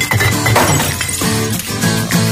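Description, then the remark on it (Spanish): Glass bottles clink together and shatter in a few loud crashes as they are recycled, their bright ringing tones hanging between impacts over a steady, dense background. “Reciclar las botellas de vidrio.”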